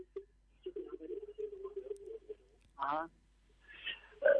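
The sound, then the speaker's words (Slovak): Telephone-quality voices with a hollow echo, as a caller's radio playing the broadcast feeds back down the phone line during a call to a song-request radio show, so bits of speech overlap and repeat in short, uneven bursts. “Stište si naozaj to rádio, lebo máme veľkú ozvenu.”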